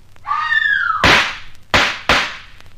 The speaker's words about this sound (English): Well, well, Drama at midnight. Shots. A woman screams. Despair, agony, or triumph. I wonder which.